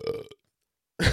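burp

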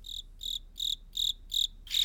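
cicada buzzing

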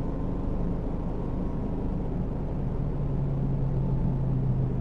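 car interior

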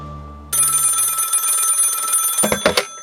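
telephone ringing

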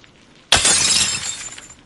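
mirror glass shattering

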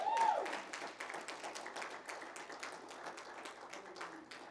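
audience clapping hands

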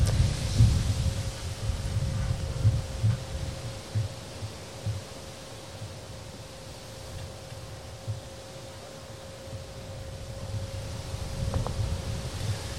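strong wind blowing

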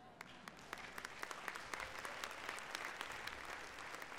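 audience applause

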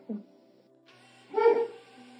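dog barking

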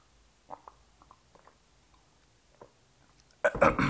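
sipping a drink

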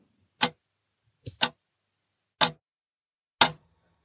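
clock ticking

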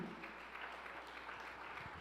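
loud applause

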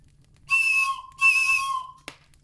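toy whistle being blown

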